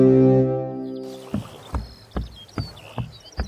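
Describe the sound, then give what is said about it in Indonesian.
A deep, sustained ship's horn gives way to a steady rhythm of splashing, knocking strokes as a large ship carrying envoys of the King of Bone sails across the water. No voices are heard. “Para utusan ini berlayar menggunakan kapal yang besar.”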